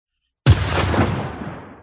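A single loud gunshot, of the kind used to put down sick animals, cracks out of silence, its sharp report followed by a long, rumbling echo that slowly fades away. No voices are heard.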